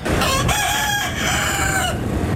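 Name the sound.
rooster crowing sound effect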